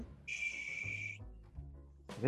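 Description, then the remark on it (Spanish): A barn owl gives a single harsh, hissing screech lasting about a second, fairly loud, followed by quiet low background noise and a brief noisy burst at the end. “Entonces se utiliza el sonido de ese animalito, de ese pajarito que hace. Mira.”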